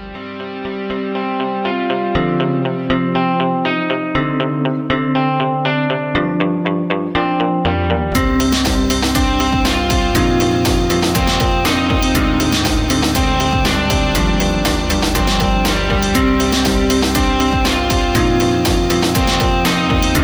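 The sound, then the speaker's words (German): Instrumental music played between segments of a talk programme, with no talking: a melodic intro of steady tonal notes, then around eight seconds in a loud full band bursts in with dense, distorted guitars and driving drums. “Dann ähm, Musik und wir hören uns gleich wieder”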